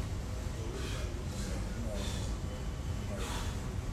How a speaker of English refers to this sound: So, emotional regulation, deep breathing is something that works because when you upset, you're breathing fast. See that? You escalate, you going up.